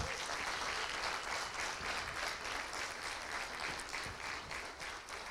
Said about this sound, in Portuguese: Vamos dar uma salva de palmas para eles.